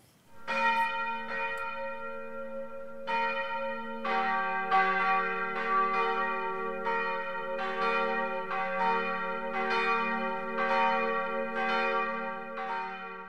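A full peal of four bronze bells of the parish church St. Josef in Holzkirchen, Miesbach district, ringing together from the free-standing tower of the modern church, fundamental tone C1; overlapping strikes in a steady, irregular rhythm with a long humming resonance, loud, with no voices.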